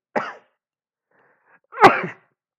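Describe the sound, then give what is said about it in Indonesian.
A person sneezes: a short sharp intake-like burst, then after a pause a louder, explosive full sneeze, with no talking. “Alhamdulillah maaf ya.”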